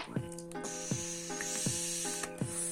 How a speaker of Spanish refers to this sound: Veanme vapear asquerosos cerdos inmundos.